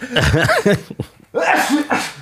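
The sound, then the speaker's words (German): A loud sneeze with a strongly voiced, drawn-out buildup, then a brief pause and a second breathy, forceful burst. No one speaks. “Kurz bevor … genossen hat, hat er äh, noch gewunken.”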